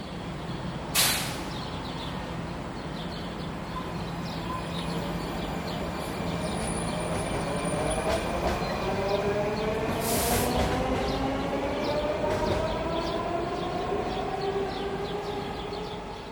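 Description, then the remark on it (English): A Washington, DC metro train pulls into a station with a steady rumble and whining motor tones that slide in pitch, punctuated by two sharp bursts of air-brake hiss. No voices are heard. “Cristin lives at the very last stop on one of DC's metro lines.”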